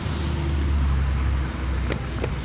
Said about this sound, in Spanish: Ah, ¿está viene un carro? Ah, bueno.